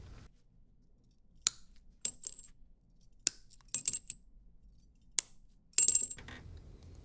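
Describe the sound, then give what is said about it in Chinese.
The latter half of glass cutting: a series of sharp, bright glassy clinks and snaps at irregular intervals, ending with a louder crackling burst with a faint ringing tone, with quiet pauses between. “第四个是玻璃切割之后半段的声音”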